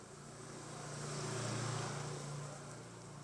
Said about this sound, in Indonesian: mending diudahin nih daripada motor tambah banyak lewat nih